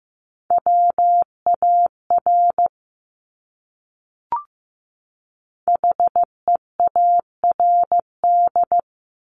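A steady, mid-pitched Morse code tone keys out dots and dashes at 15 words per minute in two clear bursts, separated by a pause and a brief click. No voices.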